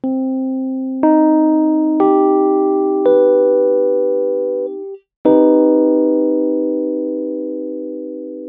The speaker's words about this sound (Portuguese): Vamos tocar agora então a tríade menor com a sétima maior.